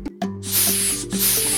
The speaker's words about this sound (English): What bug do I spy? Shout it out. A hissing cockroach. A hissing cockroach.